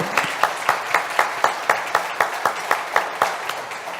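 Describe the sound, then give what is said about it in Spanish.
An audience applauds for those present aged 80, with a steady, rhythmic clap, roughly four beats per second, standing out over a dense wash of scattered clapping throughout. No one speaks. “Un aplauso, por favor, bravo.”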